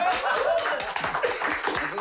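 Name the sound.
audience clapping hands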